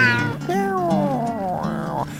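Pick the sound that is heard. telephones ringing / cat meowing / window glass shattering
cat meowing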